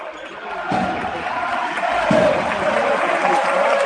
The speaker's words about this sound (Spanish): Y el Palacio que se viene arriba ahora aplaudiendo a sus eh, hombres.